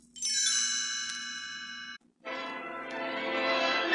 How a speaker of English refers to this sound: And I'll tell you how here when you hear the chimes ring like this.